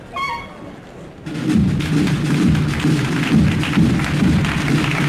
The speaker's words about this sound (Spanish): Ahí está. Fíjate el cornetín.